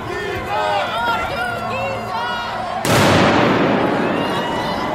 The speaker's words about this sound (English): Another firework.